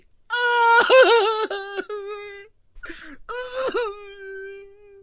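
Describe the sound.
A man's voice imitates a woman crying and wailing as a joke, with loud, high, quavering sobbing cries in two long bursts separated by a short gasping breath, alone.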